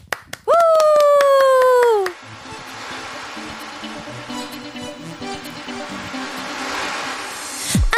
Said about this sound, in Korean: 우리끼리 박수요?